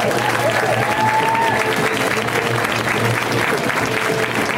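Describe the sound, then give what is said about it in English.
A comedy show audience claps and cheers for comedian David Huntsberger as he is introduced, in a steady, dense wash of applause that holds at full strength for the whole stretch without fading. “Give it up for David!”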